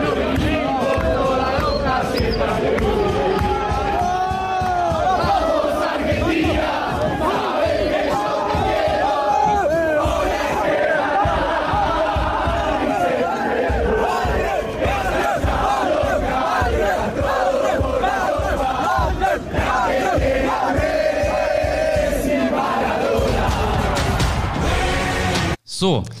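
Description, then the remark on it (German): A huge stadium crowd sings a football chant together, a loud, continuous roar of massed voices with rhythmic swells, filling the whole stretch before stopping abruptly at the end. “das ist doch der Song, der am Ende damit aufhört und jetzt holen wir den, den dritten Stern oder so, ne?”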